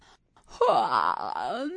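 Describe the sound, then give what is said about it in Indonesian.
A voice acts out the character Kitty's long, drowsy yawn as she wakes at the final train station. It is one drawn-out moaning breath that swells and then sinks in pitch, heard alone without any talking. “Ia menguap, memandang sekeliling dan menyandang tas bawaannya.”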